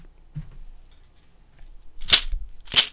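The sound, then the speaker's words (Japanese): Two sharp, crackling rattles from a homemade shaker, an empty 350 ml aluminum can with its top left on and filled with many pull tabs, struck against the ground like a snare drum about half a second apart, loud, after a faint knock and near silence. “普通の350の空き缶上を切り取らずにえー、その中にプルタブをたくさん入れてあるという感じですね。シェーカーみたいな感じです。”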